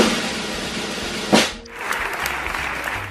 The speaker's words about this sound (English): drum roll and we have got to have the clapping hands here, lovey. Come on.